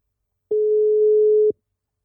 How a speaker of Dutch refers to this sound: we gaan hem gewoon even inbellen. Even kijken hoor of het gaat lukken. we, horen wel iets hier.